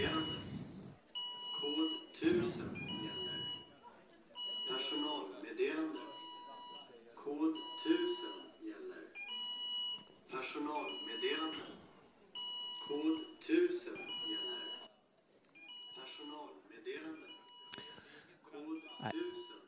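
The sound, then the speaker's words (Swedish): A building alarm beeps in steady, repeating tones while a voice over a loudspeaker repeats a Swedish staff announcement that code 1000 is in effect. The alarm is not a fire alarm. The two sounds overlap throughout with echoing reverberation. “Det är inget brandlarm, säger Thomas, så ni kan slappna av.”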